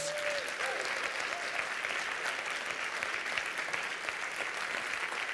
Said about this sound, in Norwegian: Og jeg syns at de som er over 70, fortjener en skikkelig applaus.